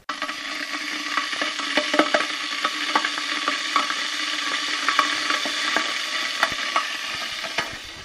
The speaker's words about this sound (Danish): Så nu sætter jeg lige en kop kaffe over.